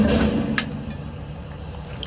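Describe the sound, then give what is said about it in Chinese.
A large, very heavy garbage truck's engine rumbles low and steady while it reverses, with a few brief sharp clicks and ticks over the continuous drone. “这么大的垃圾车也能倒，你看，这这这非常重的，这个这个车子的马力，所以说它要两个缸架起来，”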